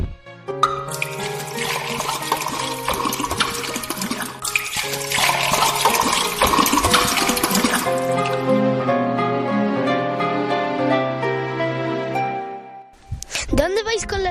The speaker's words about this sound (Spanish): Eh, criado, ¿dónde están las tinajas para lavarse? Están en el faguán. Cogedlas y llenadlas de agua.